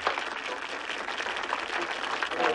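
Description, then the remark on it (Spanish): Audience applause started by Patel, a dense, steady wash of many hands clapping at once, holding at a fairly even loudness for a few seconds without distinct individual claps standing out. “Patel inició el aplauso.”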